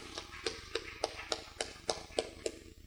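Applause heard as a slow, steady run of about nine evenly spaced claps, each a sharp crisp slap, fairly quiet and with no voices over them, as a teacher from Bonham is asked to stand during a talk about a grant for lesson plans.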